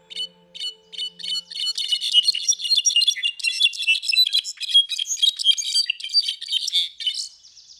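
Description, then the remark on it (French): A brown-backed solitaire (Miadestes occidentalis) sings a long, bright, rapid cascade of high tinkling notes that builds and runs continuously for several seconds, clear, with no voices. “Je vous ferai écouter mon chant préféré dans tout ce grand monde, le solitaire à dos brun, Miadestes occidentalis.”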